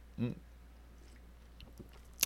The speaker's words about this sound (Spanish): no sin antes darle un traguito aquí a mi café